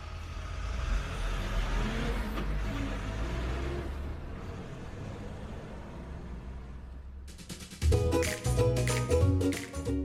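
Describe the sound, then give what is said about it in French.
A heavy moving truck loaded with belongings rumbles with a deep, steady engine drone that slowly fades as it pulls away, followed by a louder burst of bright, rhythmic music near the end. “écoute calmement les mots de papa et regarde partir ses affaires dans le gros camion.”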